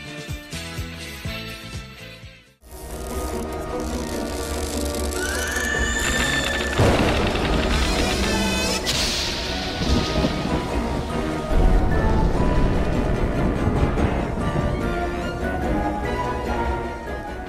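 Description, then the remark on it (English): The theme music of a horror TV series plays loudly, an eerie, dramatic mix of dense orchestral music layered with rumbling thunder, rain-like hiss and a sharp rising whinny-like glide, with no one speaking over it. “Yeah, it's still coming in there. Tales from the Crypt theme.”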